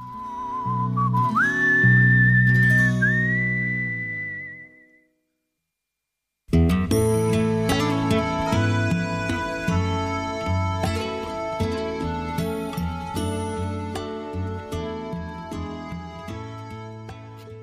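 A pop song winds up with a sustained, whistle-like high melody over soft chords, then stops; after about two seconds of silence a new, fuller instrumental piece begins and plays on steadily.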